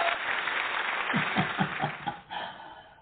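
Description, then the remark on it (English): A canned applause sound effect played on the Everything Home Talk Radio Show: a dense, steady wash of crowd clapping lasting about three seconds at moderate loudness, with faint laughter mixed in partway through before the clapping thins out. “uh, I think you deserve an, you deserve another round of applause.”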